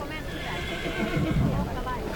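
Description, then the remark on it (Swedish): A horse whinnies in a drawn-out, wavering neigh at moderate loudness, with hooves clip-clopping and some voice-like sound low in the mix, over about two seconds; a horse being stolen at the winter market in Heinola. “Han stjäl en häst.”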